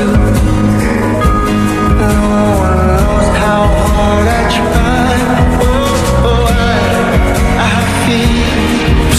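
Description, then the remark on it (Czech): A special Christmas edition of a pop song from a film plays loud and full, with layered instruments and a steady beat running throughout, no one talking over it. “No a teď o Vánocích vyšla právě speciální vánoční edice tady tohohle songu.”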